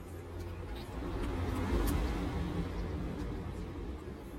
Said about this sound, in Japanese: 暑いから窓開けたらすごい車がいんってなる